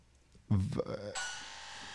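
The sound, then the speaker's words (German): A loud doorbell rings out as a steady, bright, buzzing tone that sustains to the end, preceded by a short burst of low, voice-like sound. “Hier klingelt es an der Tür, aber Oha. ganz schön gewaltig.”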